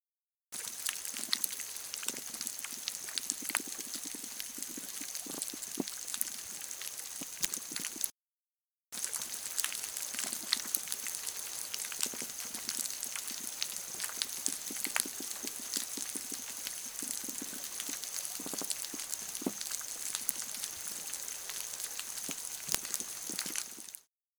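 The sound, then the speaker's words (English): An underwater recording from the Mesoamerican coral reef: dense, continuous crackling and popping clicks over a steady hiss, with a few louder snaps, briefly cutting out before resuming. “This was an underwater recording from the Mesoamerican coral reef.”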